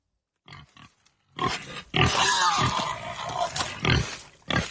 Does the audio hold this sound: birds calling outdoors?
no